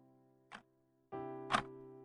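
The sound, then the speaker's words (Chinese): A clock ticks twice, about a second apart, with sharp clicks. A steady, humming musical tone rises in partway through and carries on beneath the second tick. “但我是那么清晰的记得那一刻的画面，甚至就连时钟走动的声音，我都依然记得。”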